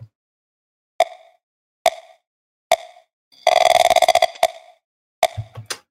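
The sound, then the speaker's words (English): Short woody creak samples strike in a steady rhythmic pattern within a music track, punctuated by a longer, buzzy stretch of rapid clicking creaks before sharper hits return. The sounds are clear, with no talking. “So we've got um, those we've got those wood creaks coming back um, over here, but they're playing a bit more of a active part in the rhythm.”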